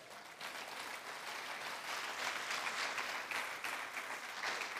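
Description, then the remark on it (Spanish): A church audience claps steadily and loudly for the Lord, a dense wash of many hands applauding together for several seconds without letting up. “Déselo fuerte al Señor, hermano.”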